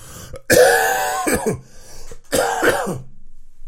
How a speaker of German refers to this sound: Ich versuche die meisten Husterer rauszuschneiden.